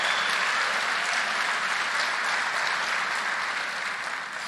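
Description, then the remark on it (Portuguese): Steady, dense applause from a crowd, a continuous wash of many hands clapping at an even loudness that holds for several seconds and eases slightly at the end. No one speaks. “Queridos, algumas pessoas, né, eh, quando a gente, por exemplo, aqui, e eu cutuco vocês, aplauda, fala, declare, você está achando que eu sou animador de torcida, irmão?”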